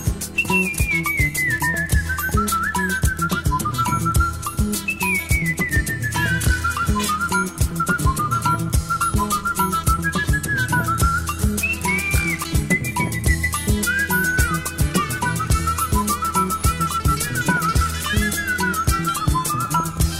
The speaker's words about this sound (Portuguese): O som da praça vai em frente, fica só o assovio.